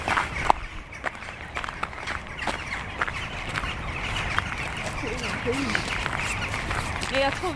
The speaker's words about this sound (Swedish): Vi hör ju dem i alla fall, de här skatorna. Mm. Ja, vi ser dem i och för sig också men...